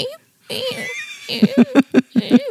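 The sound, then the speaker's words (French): A person imitates the small clucking sounds a female chihuahua makes when asking for something: a few soft voiced chirps, then a quick run of about six short, punchy clucks in a steady rhythm, fairly loud. “Euh, elle fait des petits gloussements quand elle réclame quelque chose, euh, des petits sons qui ont, que je peux essayer d'imiter, qui font.”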